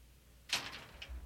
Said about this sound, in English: Suddenly, the man pulled his hand out of his pocket and began to pull and push against the door again to shut the third door.